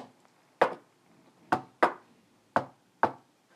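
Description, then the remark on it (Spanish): Five sharp, fairly loud knocks on a hard surface in an uneven rhythm, someone rapping out an imitation of heavy thumps heard from the rooftop above a bedroom, with quiet pauses between and no talking. “Y varias veces sí me tocó escuchar golpes como de.”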